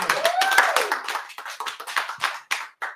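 A small group applauds a live music performer, with dense overlapping hand claps at first that thin out into a few scattered, separate claps, and a brief whistle or cheer rises near the start.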